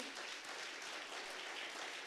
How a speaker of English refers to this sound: 12 years. Can we clap one more time?